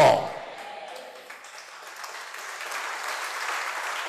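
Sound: audience applauding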